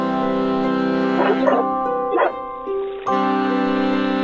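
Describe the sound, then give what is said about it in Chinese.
A sheepdog named Phoebus gives two short, sharp barks about a second apart beside a stream, sounding over a steady, sustained musical drone that continues throughout. “毛鲁斯领着牧羊犬菲布斯来到小溪边。”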